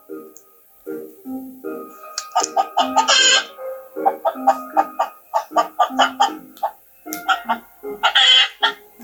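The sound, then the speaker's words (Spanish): A voice imitates a hen clucking in a quick run of short, choppy, repeated clucks, fairly loud, with a few higher squawking bursts breaking through. “Y empezó a correr y vio a una gallina que juntaba comida. Y el pollito pensaba, tiene dos patas y dos alas. Y hace...”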